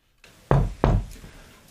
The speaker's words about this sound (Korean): 아침이 되자 황 목사 아들이 유란의 방문을 두드렸다.